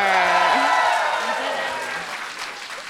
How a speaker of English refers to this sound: Sell it to me, audience. Applause for God of War.